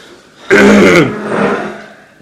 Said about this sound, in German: Wir husten uns jetzt einmal zurecht.